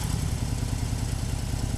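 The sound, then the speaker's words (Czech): A motorcycle engine idles, a steady, rumbling low thrum with a quick, even pulse that holds at constant loudness throughout, with no voices. “Takže mi tu motorku necháte, jo?”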